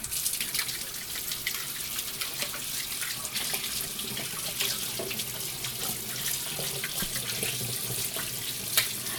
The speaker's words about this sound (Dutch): handen afspoelen.